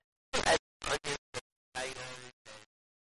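A voice on a mobile phone call breaks up into short, choppy bursts smeared with scratchy crackle and dropouts because of a poor mobile network signal.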